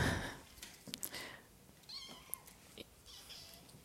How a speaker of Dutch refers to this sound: Wat je net hoorde was een kat die ergens inklom en die ik eruit moest halen.